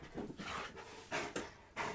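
A dog that has just come rushing in, in play mode, pants and whimpers excitedly: quick breathy huffs broken by a few sharper high-pitched bursts, with no talking over it.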